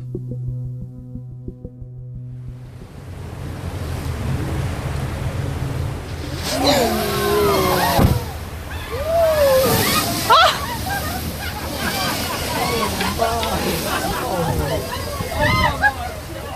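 The engine of a cruise ship full of whale-watching tourists, circling in search of whales, drones and throbs at a low, steady pitch, heard from underwater. After a few seconds, wavering, sweeping whale-like calls rise over the rumble and water noise.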